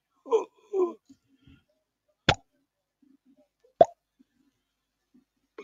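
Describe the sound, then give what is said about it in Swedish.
A ball bounces a couple of times with sharp, hollow thumps spaced well apart, each followed by quiet; a few softer muffled knocks come just before. “Bollen låter, bollen låter, bollen låter, bollen låter.”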